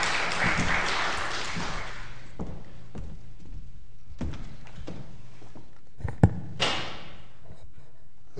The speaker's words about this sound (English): A round of applause, please, for our distinguished speaker tonight.